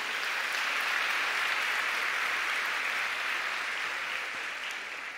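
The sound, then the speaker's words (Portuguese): A church crowd in an auditorium claps again after a prayer, steadily for about five seconds, a dense, even wash of many hands with no talking, the applause holding strong before easing slightly at the end. “Você pode aplaudir mais uma vez?”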